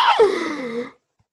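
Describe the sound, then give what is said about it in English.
A voice imitates a sharp gasp: a sudden breathy intake that slides into a voiced, falling moan, fairly loud, lasting under a second before silence. “I truly gasped. I went,”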